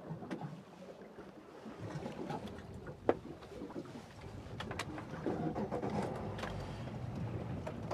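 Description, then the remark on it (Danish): A small fishing boat moves steadily across the water while searching for schools of mackerel, its low motor drone mixed with splashing and lapping waves, and a single sharp knock partway through. No one speaks. “Øh, og det vil sige, at vi sejler rundt og kigger på ekkoloddet, som er her foran mig, og holder øje med, hvor stimerne er henne.”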